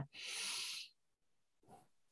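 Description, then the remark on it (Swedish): A deep, loud breath drawn in, rushing and airy for nearly a second, then a short pause and a briefer, softer breathy sound. “Så ja, ett djupt andetag.”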